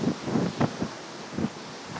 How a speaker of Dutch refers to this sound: En nog steeds ontzettend veel wind.